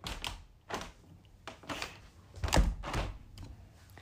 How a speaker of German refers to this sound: Ich mache nochmal die Tür zu hier, die Terrassentür.